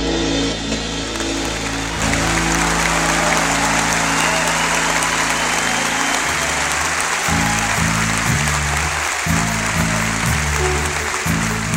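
Sustained audience applause, a dense hiss of many hands clapping at steady loudness, with a low musical tone playing underneath in shifting blocks.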